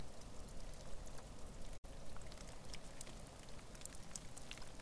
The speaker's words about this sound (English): So, one of my favorite things was I love recording weather, and I recorded some of the most soothing and mellow rain that I've ever recorded.